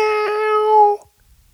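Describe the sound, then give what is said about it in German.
A single drawn-out, cat-like meow voiced by a person imitating a cat, fairly loud, holding a steady pitch for about a second before cutting off into silence. “Miau!”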